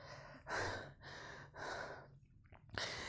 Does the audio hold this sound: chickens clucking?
no